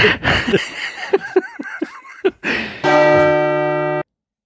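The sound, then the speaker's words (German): Bursts of laughter give way to a single loud, sustained church-bell tone, rich and ringing, held steady for about a second before cutting off abruptly. “Dazu die Glocke zum, zum Sonntag, hätte ich gesagt, oder?”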